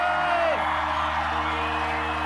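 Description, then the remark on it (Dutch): A big audience applauding and cheering loudly, with whoops over a dense, steady wash of clapping that fills the whole stretch. Some tonal sounds sit underneath. “Mag ik een gigantisch applaus”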